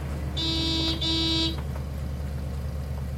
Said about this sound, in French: L'homme au volant se gare, klaxonne et patiente. Il regarde en direction du restaurant.